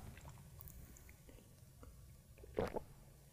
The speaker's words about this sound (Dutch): Sorry, even een slokje water.